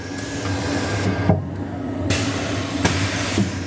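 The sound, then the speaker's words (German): A page-turning book-scanning robot digitizing books whirs steadily with a low mechanical hum, punctuated by sharp clicks and bursts of airy suction noise, like an aggressive vacuum cleaner, with no voices. Volumes lie opened at about 30 degrees in a book cradle while a triangular prism moves in from above and scans both pages at once. “Was wie ein aggressiver Staubsauger klingt, war ein technischer Quantensprung.”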